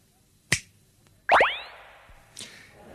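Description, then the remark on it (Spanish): A single crisp finger snap, made as a pretend magic gesture in a radio studio, then a loud springy, rising twang that rings out and slowly fades, ending with a faint click. No one speaks. “Recurro a la magia y hago chasquear los dedos.”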